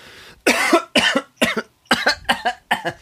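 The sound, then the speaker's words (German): A loud coughing fit from someone choking: a rapid series of about six harsh, wet coughs in quick succession with brief gasps between them, no talking. “Da, da verschlucke ich mich gleich.”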